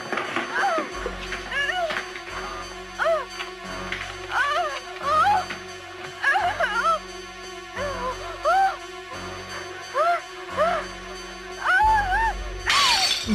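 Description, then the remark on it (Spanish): Window glass smashes in a sharp, bright burst near the end as a desperate woman breaks a window, after a stretch of rising and falling tonal wails over a low, pulsing rumble. “se desespera y rompe la ventana.”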